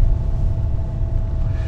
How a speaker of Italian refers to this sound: già c'è il rumore della macchina